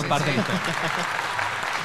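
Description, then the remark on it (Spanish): An audience in Venezuela breaks into steady, dense applause during a live-streamed program crossover with a radio station. The applause holds at an even level for about two seconds, with a few voices faintly mixed into the clapping. “Otro aplauso para eso.”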